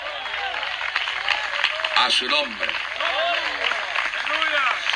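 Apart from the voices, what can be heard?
audience applauding loudly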